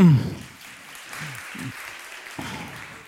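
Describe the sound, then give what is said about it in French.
An audience applauds in a steady, dense patter of clapping that holds at a moderate level for a few seconds, with a brief voice at the start and faint murmurs underneath. “On peut l'applaudir.”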